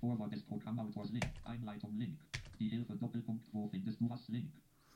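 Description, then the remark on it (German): A man talks steadily while computer keyboard keys, including the Tab key, are pressed in the background to step through some 500 links, with a couple of sharper, louder clicks standing out between the faint tapping. “500 Links, die wir jetzt alle mit der tabulator taste ich mache es mal.”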